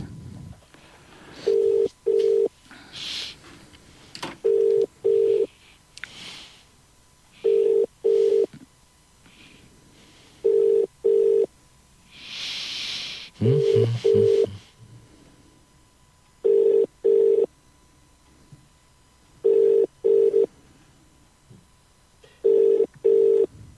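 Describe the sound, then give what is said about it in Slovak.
Outgoing phone call ringback tone while calling a guest blogger: steady double beeps repeating about every three seconds, roughly eight cycles, clear, with faint background noise between rings and no talking. “takže voláme, voláme pani Kláru.”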